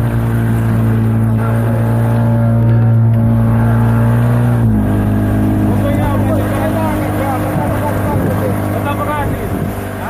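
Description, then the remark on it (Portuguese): A boat's engine drones steadily and loudly, then drops in pitch as the boat eases down to dock at Buzi, at what remains of a crowded quay, while a crowd of voices chatters and calls out. “Mal o barco encosta em Buzi”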